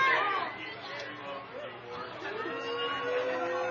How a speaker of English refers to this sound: The Paw fans are booing, but for crying out loud, their coach has more meetings than Congress.